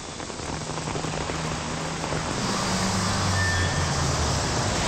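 Steady, dense rain pours down in a continuous hiss, with a low engine rumble and faint vehicle tones passing underneath; no one speaks.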